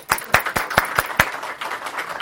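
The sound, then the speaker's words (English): Applause from an audience thanking a speaker, opening with a few sharp, evenly spaced claps that blend into a steady, moderately loud patter of many hands. No one speaks. “You know, another round of applause.”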